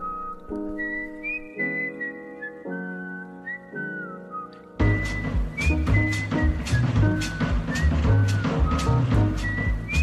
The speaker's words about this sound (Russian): Ну короче, послушайте, шикарный трек. Свистит отлично.